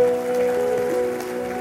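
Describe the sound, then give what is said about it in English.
A church audience claps steadily in a dense, sustained burst of applause as a clap offering to God after worship, with a held keyboard chord ringing underneath throughout. “Go on, let's give God a, a, a clap offering.”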